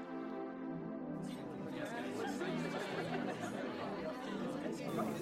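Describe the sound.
Steady murmur of many overlapping voices of guests chatting at a surprise party, a dense crowd babble with occasional brighter bursts, continuous throughout at moderate level.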